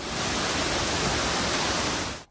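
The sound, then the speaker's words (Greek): A dense, steady, loud roar of a cyclone's rushing floodwater and storm wind as the water level rises and destroys houses, holding constant for about two seconds before cutting off abruptly. No voices. “Η στάθμη του νερού ανεβαίνει με αποτέλεσμα τα ορμητικά νερά να καταστρέψουν ολοσχερό τα σπίτια.”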